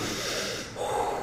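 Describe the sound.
A person imitates a scuba diver's breathing: a long, hissing inhale, a brief pause, then a raspy, slightly whistling exhale, loud with no talking.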